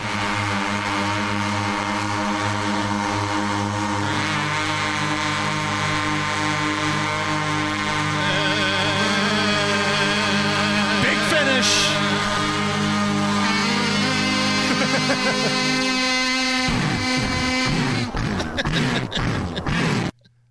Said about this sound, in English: great moments in world record history: the most people playing a kazoo at once.